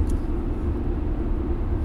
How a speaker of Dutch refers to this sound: Ja, want we zitten in de auto eh,